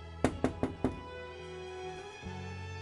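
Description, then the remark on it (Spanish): Four sharp knocks on a door in a quick, even rhythm, distinct, followed by a low steady hum and quiet room sound. “Si no estás en tu casa y van y tocan a tu casa, ¿sabrás que tocaron?”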